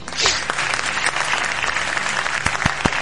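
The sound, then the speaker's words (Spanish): Steady applause from a crowd for the game Microsoft Flying Simulator, a dense wash of clapping that holds at an even level for about three seconds, with a few sharper individual claps standing out near the end. “Un aplauso para el Flying Simulator porque decir lo que ha supuesto, ¿no?”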